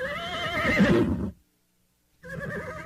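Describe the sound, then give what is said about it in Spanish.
A horse whinnies loudly, a long quavering neigh that cuts off, then after a short silence a second, shorter whinny follows. “De pronto aquel relincho hizo que Carlos se desapartara violentamente y corrió a la ventana.”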